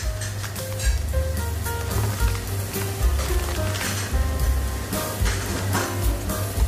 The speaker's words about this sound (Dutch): Nou, dan gaan we even lekker spekjes bakken. Wij gaan vandaag uh, eh, stampot, uh, eh, stampot rauwe andijvie maken met spekjes.